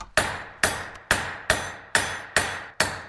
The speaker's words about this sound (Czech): Co to je za zvuky? Můžeme nějak popsat? je to dopadání kladiva na rozhavený drát na malém kovadle. A co z toho potom vznikne? Měl by z toho vzniknout malinký hřebíček do bot, takzvaná šerka.